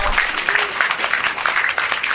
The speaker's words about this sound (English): So thank you, experts. We can set you down for a round of applause. Thank you very much.